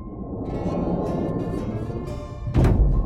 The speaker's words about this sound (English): You do realize Merv isn't a demolition derby car. I barely bumped into the coral reef. Not a big deal.